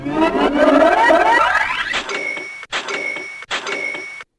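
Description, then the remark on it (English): A Shopify sale notification cha-ching chime signalling a new sale: a rising jingly rush of coins swells for two seconds, then three bright ringing chime bursts follow in quick succession, loud with no talking. “Brings a smile to my face every single time because that is the sound of another sale on Shopify, the all in one commerce platform to start, run, and grow your business.”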